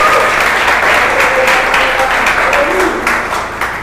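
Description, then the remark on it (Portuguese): An audience breaks into loud, sustained applause for Jesus, a dense wash of many hands clapping steadily, with faint cheering voices woven through before it begins to taper off at the end. “Eu posso ver um aplauso para Jesus.”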